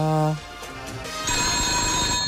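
A telephone rings loudly, a bright, steady electronic trill that starts about halfway through and continues to the end, preceded by a brief low tone.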